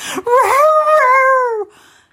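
A dog named Fini, while being combed, lets out a single drawn-out whimpering whine, high and tonal with a wavering, slightly rising then falling pitch, lasting over a second before trailing off into quiet.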